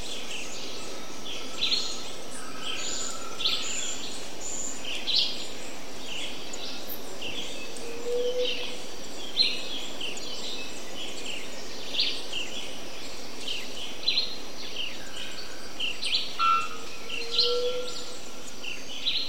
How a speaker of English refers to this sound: You know, if you go down to Costa Rica, you can more or less walk into the, the jungles there and record something beautiful as soundscape and there's not a lot of traffic or sound from planes that break the soundscape.